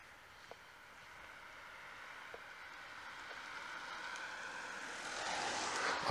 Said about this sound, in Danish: og der kørte der en bil forbi, og det er stort set også det eneste, der egentlig foregår her i Ringsbjerg.